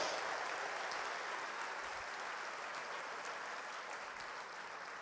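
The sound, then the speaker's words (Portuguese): An audience applauds steadily to glorify God, a dense, continuous wash of many hands clapping that holds for the whole stretch, full, with no talking over it. “Você pode aplaudir, glorificar, exaltar a Deus.”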